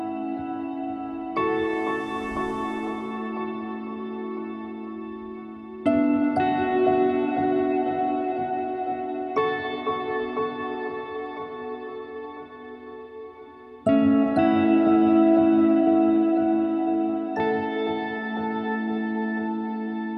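A piano plays a slow song, sustained chords struck every few seconds and left ringing with a soft reverberant decay, fairly loud and with no voices.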